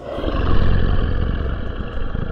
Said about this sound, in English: and you see that surrounding this big tentacle there are literally hundreds of smaller ones that wreath its face. That's where the eye sits at, and in all of its horrific glory, it roars and the cavern shakes.